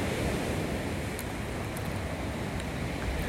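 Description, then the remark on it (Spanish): Ocean waves wash onto the shore in a steady, full-bodied roar of surf, holding an even loudness throughout with no distinct pauses and no voices. “Escucha el Mar con Zoro? Q linda la Vida”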